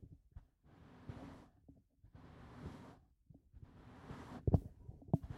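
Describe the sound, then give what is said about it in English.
A cat being gently brushed: three slow, soft swishing strokes in a steady rhythm, with a low rumbling purr underneath and a few light thumps near the end. Faint overall, no talking. “It's the noise of a cat being gently brushed.”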